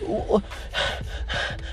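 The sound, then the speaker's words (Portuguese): A person gasps and pants, with a few quick, heavy, breathy exhalations in a row, fairly loud, as if imitating being out of breath after repeatedly failing a movement. “Já fica ofegante, já começa a ficar com raiva já daquele movimento desgraçado que você tinha feito e ele já não quer mais surgir.”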